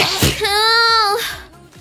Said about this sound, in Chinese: 我要打打喷嚏